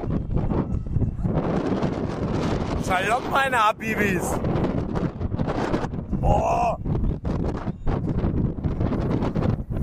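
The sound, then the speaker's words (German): Strong wind roars and buffets the microphone without pause, a loud rumbling blast that covers the whole stretch while a man's voice calls out briefly over it. “Wind in meine Fresse!”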